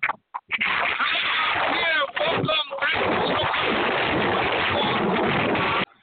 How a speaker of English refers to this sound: We'll get him on a better line. We'll get somebody else in. I think he's out on a boat, uh, maybe in Hades.